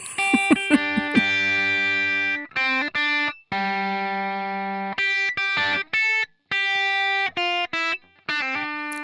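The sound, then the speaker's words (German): The theme tune of the TV show The A-Team, aired on NBC from 1983 to 1987, played live and somewhat clumsily on a heavily distorted, buzzy electronic instrument: loud sustained notes broken by abrupt stops and uneven gaps, with no talking. “schlecht gespielt, aber vielleicht erkennbar. Ist das das A-Team? Das ist das A-Team, das ist ganz genau richtig.”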